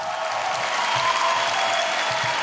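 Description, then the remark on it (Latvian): A crowd in a hall gives an actress a standing ovation after her speech declining a national award. The applause is steady, with dense overlapping claps forming a continuous loud wash of sound with no pauses, the ovation holding at an even level throughout. “Aktrise pavadīja stāvu ovācijas zālē, kā arī sociālajos tīklos vienaldzīgais šai runai nebija.”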